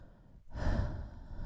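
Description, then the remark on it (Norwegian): A loud, exaggerated, sexy breath blown into the microphone after a brief pause, a long breathy exhale with rough, airy texture and no speech. “Bare puste litt sexy mikrofon i mellomtida.”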